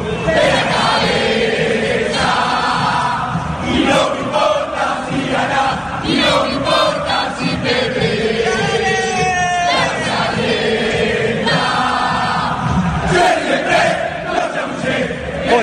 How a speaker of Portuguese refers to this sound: Mas o torcedor do Boca sabe fazer festa. Ouçam só a torcida do Boca.